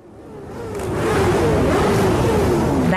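Engines of many fans' motorcycles, dirt bikes and four-wheelers rev loudly and continuously at Barclays Center in Brooklyn, gathered to commemorate a late rapper, a dense roar building in intensity and holding steady, with a tonal engine whine drifting in pitch over the crowd of machines.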